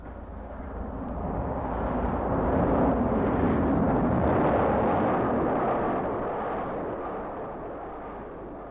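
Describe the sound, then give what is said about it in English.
A heavy, continuous rumble of a train passing along the track, building to a loud roar in the middle and easing away toward the end, with no voices. “Nuneaton, Lichfield, Rugeley, the sound of the road, the echo of the passing train, and the signals all tell the driver where the Irish mail is.”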